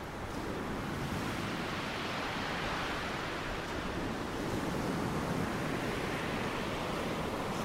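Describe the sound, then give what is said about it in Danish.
Waves crash steadily against the shore of the Limfjord in North Jutland, Denmark, under gusting wind that tears at the houses, a dense, continuous roar that swells slightly now and then. No voices are heard. “Bølgerne, der slår mod land, og blæsten, der river i husene.”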